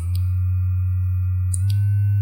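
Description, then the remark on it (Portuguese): A microphone-shaped 'Magic Wand' type wand massager, switched to vibration and held up to a microphone, gives a loud, steady low-pitched buzzing hum that runs unbroken throughout, joined by a few brief clicks and a slight shift in tone near the end. “Não dá pra vocês verem o tanto que ele tá tremendo, mas vocês estão ouvindo aí.”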